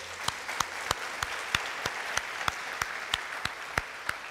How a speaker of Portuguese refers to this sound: Então, dê um aplauso ao Senhor bem forte. Amém?